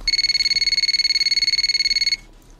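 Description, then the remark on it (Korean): A telephone rings on an outgoing call to a former elementary school teacher: one fast, buzzing electronic trill of high-pitched tones lasts about two seconds, then cuts off into quiet. No one speaks. “그리고 선생님의 전화번호를 받자마자 전화를 걸었죠.”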